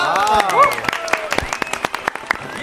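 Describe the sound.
Several people clap in quick, irregular, sharp bursts, while voices cheer and shout excitedly over the applause at the start, celebrating the release of a group's new single album.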